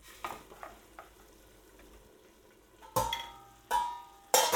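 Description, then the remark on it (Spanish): Potatoes confiting slowly in oil over very low heat in a half-covered pan, for a Spanish tortilla, give off a soft, steady sizzle, broken by a few light clicks and then three louder bursts of hiss and clatter as they are stirred. No one speaks. “las voy a dejar haciendo a fuego muy bajito para que se me confiten”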